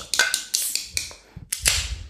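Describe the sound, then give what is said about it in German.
A quick series of five or six sharp metallic taps on a can of Zipfer Märzen beer before opening it, then a short pause and two more crisp clicks, with no one speaking. “Natürlich mit dem, genau, ganz äh, typischen Klopfen vorher.”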